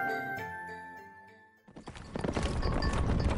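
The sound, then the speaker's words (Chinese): Soft, sustained tonal music gives way halfway through to a sudden loud, dense clatter of a horse-drawn carriage charging straight at a person on a market street, hooves clip-clopping rapidly under a rough rumbling rush, with no voices. “发现一辆马车直冲他而来。”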